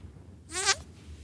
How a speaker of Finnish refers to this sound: Miksi sulla on tallennettuna Pierun ääniä?